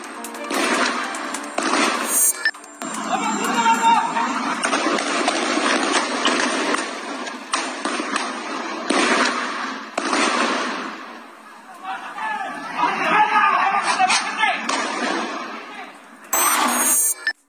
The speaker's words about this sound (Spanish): Escucha el calibre de las detonaciones. Se reporta una persona detenida, un civil herido y una persona que perdió la vida, también un civil que perdió la vida en este enfrentamiento.